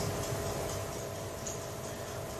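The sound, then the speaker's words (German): A steady, quiet mechanical ticking from an egg timer that has been set behind the speakers, running continuously at an even pace over a low background hum with no one speaking. “Jetzt hat der Ralf so eine blöde Eieruhr gestellt, die hinter uns hier tickt”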